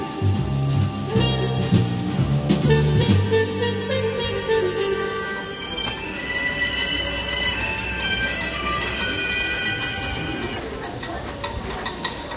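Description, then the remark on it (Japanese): A Keisei commuter train heading toward the Katsushika Shibamata area of Tokyo rolls along the tracks, with steady rumbling of wheels on rails, rhythmic low thumps early on and high metallic squeals and whines rising over the continuous noise. “えー、あのあとですね電車、えー、京成電車かなんかに乗りまして、えこの葛飾柴又方面にやってまいりまして”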